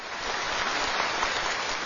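Steady applause from an audience, a dense wash of clapping that holds an even, fairly loud level throughout, with no voices over it.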